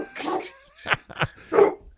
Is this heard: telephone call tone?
no